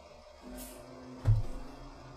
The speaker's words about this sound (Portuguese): Esse episódio está apropriado para o Cucuros do Ano, que agora eu pausei também por causa do caminhão do lixo.